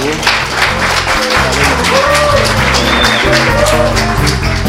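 An audience applauds steadily for several seconds, a dense, loud wash of many hands clapping, with faint low tones and a few brief whistles running underneath.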